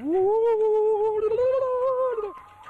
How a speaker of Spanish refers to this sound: Escucharán de fondo música prehispánica